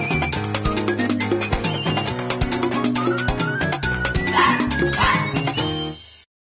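A fox calls with a run of sharp, high yipping barks, repeated over a busy, steady musical backing that fades out at the end.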